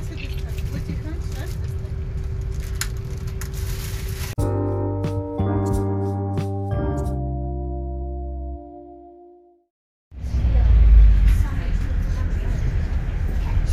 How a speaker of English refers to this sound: for the eagle eared, uh, amongst you would have noticed that that is not the sound of a train but a bus. That's right, I am in Liverpool um, on the, I think it's number 80 bus heading to Liverpool airport.